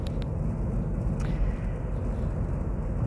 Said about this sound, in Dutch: Ik zit in de auto, eh, dus dat geeft natuurlijk ook nog wat extra geluid op de achtergrond.